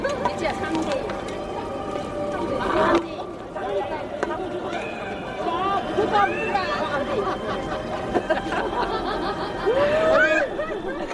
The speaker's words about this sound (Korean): 저희가 이게 들어보니까 아주 차 소리도 나고 여러 가지 예. 소리가 예. 섞여서 잘 들리진 않는데 제가 들은 소리는 이렇게 공 소리도 나는 예, 것 같고 배드민턴 치는 분들입니다. 아, 배드민턴 아, 몇대 몇 하는 게 예, 예 배드민턴 스코어였군요. 예. 이 대동강변에서 평양 주민들이 아침 운동을 많이 하나 봐요.